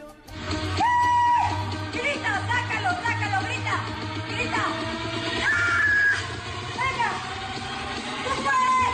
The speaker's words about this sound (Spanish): Bárbara de Regil mm, nos pide hacer la terapia de, de grito. Usted también en casa, cuando diga Bárbara, grite, aunque espante a los vecinos. Escúchela.